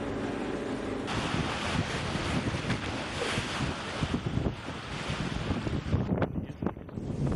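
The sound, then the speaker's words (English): A large ocean-going catamaran out at sea for deep sea sport fishing runs in strong wind, with loud, steady rushing and gusts buffeting the microphone over the wash of waves and water. No one speaks. “David takes out the largest of his ocean going catamarans.”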